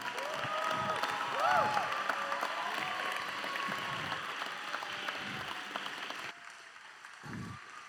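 A crowd claps steadily in dense applause with a few whoops and cheers rising over it, holding loud for several seconds before cutting down to a quieter patter near the end.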